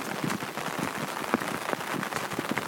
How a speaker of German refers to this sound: Das es regnet jetzt aber so wieder sehr doll.